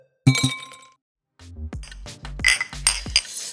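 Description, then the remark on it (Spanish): A single bright clink of glasses touching in a New Year's toast with drinks at home, ringing briefly before fading, followed by a stretch of clattering and shuffling noises. “Vamos a hacer un refil, Merlito. Salud, salud, salud”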